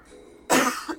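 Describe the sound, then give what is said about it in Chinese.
A single sharp cough, from a person still suffering after COVID-19, bursts out with a harsh, breathy rasp, then trails into a shorter second catch of the throat. No talking, just a quiet hiss around it. “不好意思哦，我们这个新冠后真的是哦很痛苦， 对，不时的会咳嗽，请大家见谅。”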